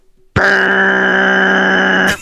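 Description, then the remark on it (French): A voice imitates a car's self-leveling air suspension compressor, which adds air when a heavier person gets into the car, with a steady, loud, droning buzz held for nearly two seconds, starting abruptly and cutting off sharply, with no other speech. “quand une personne qui embarque dans la voiture et t'entends le compresseur”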